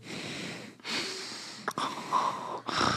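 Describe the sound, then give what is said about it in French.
A voice imitates a man's loud, heavy breathing: four long, rough, wheezy breaths in a row, forceful, each inhale and exhale running almost straight into the next, with no talking. “Puis le gars, il respirait tellement fort que j'avais son souffle sur moi.”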